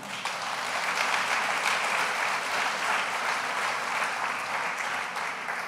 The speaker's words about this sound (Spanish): Dale un aplauso bien fuerte.